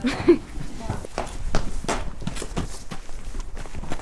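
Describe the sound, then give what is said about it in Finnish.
Hooves of a horse being let out of the stable into the sunshine, a steady series of clopping steps, with a few voices murmuring in the background. “Jos me päästetään tämä uljas hevonen ulos, mitä sitten tapahtuu?”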